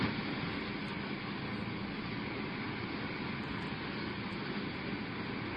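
Four helicopters, each carrying a member of a string quartet (three violinists and a cellist) during a performance, roar overhead in a loud, steady, dense engine-and-rotor din that fills the whole stretch without pause. No one speaks.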